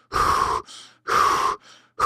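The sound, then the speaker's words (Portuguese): Forceful deep diaphragmatic breaths in a steady rhythm: two long, loud airy breaths, each followed by a softer, shorter one, then a third strong breath begins. No talking. “Então quando eu faço a diafragmática, eu fico controlando.”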